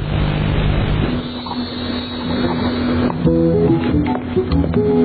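A loud, steady airplane engine roar builds and holds as the plane powers up for takeoff, with a droning hum and rising tonal whine layered on top. No one speaks.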